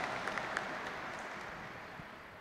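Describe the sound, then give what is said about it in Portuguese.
An audience at Mass applauds steadily to receive the Gospel reading, a dense wash of many hands clapping at once with a few sharper claps standing out early, holding at an even level throughout. “Recebendo a palavra da salvação como a salva de palmas.”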